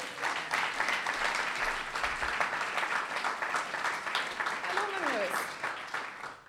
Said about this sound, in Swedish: Ge honom en applåd!